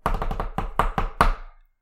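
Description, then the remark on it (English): A drumroll tapped out by hand on a hard surface: about eight sharp knocks, rapid at first, then spacing out, ending on a louder final hit that rings briefly. No talking. “we don't know who it is, but drumroll.”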